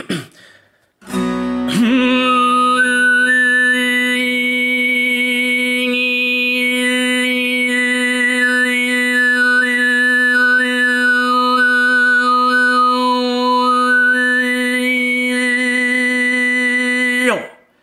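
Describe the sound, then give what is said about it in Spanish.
A single voice performs projective overtone singing, holding a steady, buzzing low drone while a bright, whistle-like overtone melody glides up and down above it. The sounds come entirely from the singer's mouth, with no whistle. The singing is sustained loudly for about sixteen seconds. “Y el que sigue ya es canto polifónico proyectivo, ¿no? Que sería este.”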